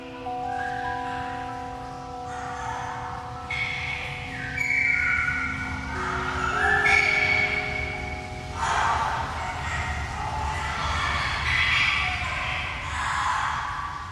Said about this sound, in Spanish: Lo que escuchas es la grabación de seis loros amazónicos entrenados por la artista Rachel Berwick